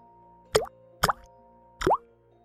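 Three distinct drops of blood from a statue's palms plop into water at roughly half-second intervals, each a short wet bloop with a rising pitch, clear against a faint steady background hum.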